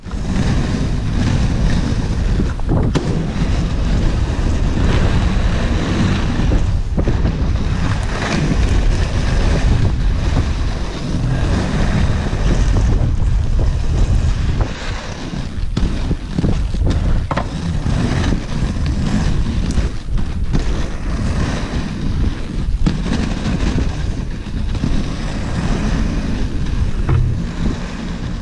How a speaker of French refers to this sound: Normalement, c'était euh, un, bruit de roue de roller qui, euh, glisse sur le bitume.